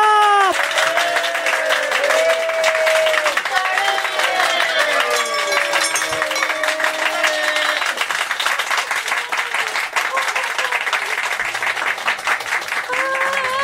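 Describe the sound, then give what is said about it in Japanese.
Sustained applause from an audience welcoming guest voice actress Yukari Fukui, a dense steady wash of many hands clapping for over thirteen seconds, with a few cheers and whistle-like tones rising above it. “皆さん、拍手を迎えください。”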